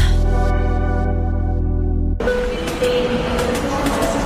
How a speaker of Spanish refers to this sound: El hipertren de la Balearic Network.